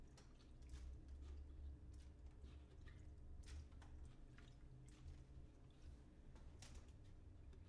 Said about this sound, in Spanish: Uy, muchachos. Me agarraron aquí regando las matas. A echarles un poquito de agua así.